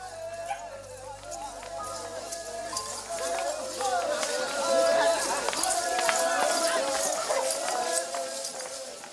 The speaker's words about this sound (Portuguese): Esse som que você está ouvindo, por exemplo, é um encontro de xamãs Yanomami em 2013 na missão Catrimani, em Roraima. O registro está no canal do Instituto Socioambiental no YouTube.